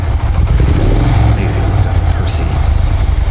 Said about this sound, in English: The low guttural sound of the Black Volga roaring to life in the rain. A dark chase was about to begin.